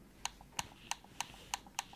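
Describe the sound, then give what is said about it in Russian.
A game controller's new D-pad being clicked six times in a steady rhythm, each press a crisp, loud plastic click with a faint release tick between, and no voices. “Это я вот на нее кликаю. А теперь новая крестовина”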